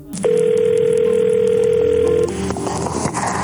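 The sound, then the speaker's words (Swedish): A steady telephone dial tone on a family's wiretapped phone line hums loudly for about two seconds, then cuts off as the line clicks and opens with faint background noise. “Familjens telefon avlyssnas dygnet runt. Samtalen från kidnapparna kan ge viktiga ledtrådar.”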